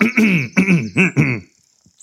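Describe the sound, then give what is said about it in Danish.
A man coughs after taking a deep breath: four quick, voiced coughs and throat-clearing rasps in a steady rhythm, fairly loud, then a short stretch of near silence. “Nej, nej, nej, siger han, men så kommer til at hoste lidt.”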